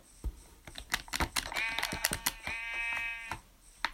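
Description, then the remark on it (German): A video game sheep up ahead bleats twice in a row, each bleat drawn out and wavering, over a steady clatter of keyboard typing and clicks that runs through the whole moment. “Da vorne ist noch ein Schaf.”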